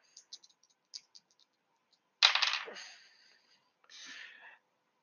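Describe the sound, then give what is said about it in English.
Two dice rattle and tumble across a hard tabletop: a few light taps, then a loud clattering roll that fades, followed by a second, softer roll. No one speaks. “Now I got to right roll two more because we had two.”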